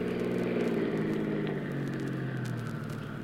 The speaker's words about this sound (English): Glad we took this car. It hasn't got much guts.